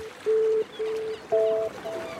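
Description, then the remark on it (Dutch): A ferry on the way to Texel sounds several long, steady horn blasts, fairly loud, with short gaps between them over a soft wash of water and engine noise. “Minder dan 24 uur na het telefoontje met Rob staan we op de boot naar Tessel.”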